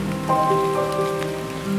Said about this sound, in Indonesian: Hujan setiap kali kamu datang dengan rintik airmu yang selalu saja mengingatkanku pada Tuhan.